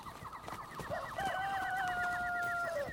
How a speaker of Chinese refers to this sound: 鸡叫了，鸡叫了，鸡叫代表天要亮了，城门可以开了。